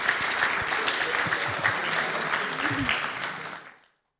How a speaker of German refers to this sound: Salva de palmas para ele. Ein Applaus.